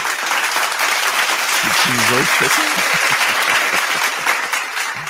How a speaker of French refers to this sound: Alors, je n'ai pas applaudi. je ne savais pas qu'il y a des applaudissements.